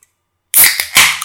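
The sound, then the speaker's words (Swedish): A sparkling wine bottle is uncorked with a sharp pop, followed by a rushing fizz and a second gush of bubbly hiss, with no voices. “Nu öppnar jag.”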